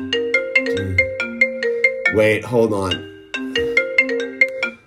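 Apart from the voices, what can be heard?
mobile phone ringtone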